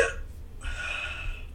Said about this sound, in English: I have the hiccups